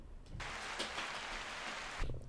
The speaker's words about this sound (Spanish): Duro, un aplauso.